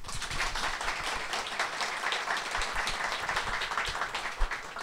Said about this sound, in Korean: 하여튼 안 털어주셔서 감사합니다. 박수 주십시오.